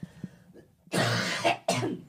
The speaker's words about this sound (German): Ich muss einmal noch aushusten. Entschuldigung,